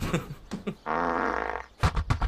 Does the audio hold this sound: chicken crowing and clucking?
no